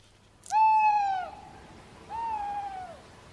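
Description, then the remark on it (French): Two drawn-out, wavering hoots from a tawny owl, the first loud, the second a little softer after a short pause, against a quiet background with no voices. “Alors on va écouter une petite chouette.”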